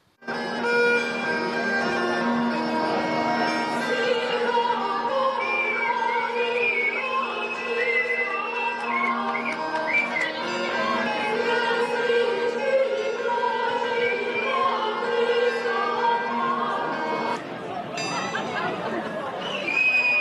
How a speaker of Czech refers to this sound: Na jihu Čech lidé protestovali hlasitým pískáním.